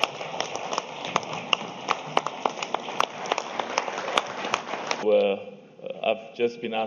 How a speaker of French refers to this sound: Exprimez à travers vos acclamations, l'élection du nouveau président